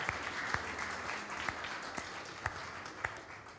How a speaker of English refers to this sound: So let's have a round of applause for all those who have worked so hard.